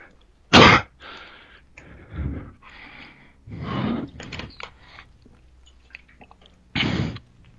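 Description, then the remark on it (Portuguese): Someone pausing to drink water, with a string of irregular wet gulps and mouth noises, opening and closing with two sharper, louder bursts like a breath or throat clear. No one speaks. “Foi mal, parei pra tomar água.”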